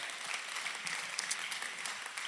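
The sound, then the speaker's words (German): A church audience in Nürnberg applauds steadily, a dense wash of many hands clapping at an even level with scattered sharper claps throughout, no voices standing out. “Hey, vielleicht können wir uns mal gegenseitig als Church Family nochmal einen riesen Applaus geben.”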